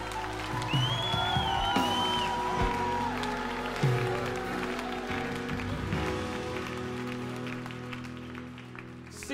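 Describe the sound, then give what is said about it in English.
An audience claps steadily for about nine seconds, a dense, continuous wash of applause with a few sharper bursts, mixed with some sustained tonal sounds and low thumps underneath. “Come on, I, reckon we should have a bigger clap than that, isn't it?”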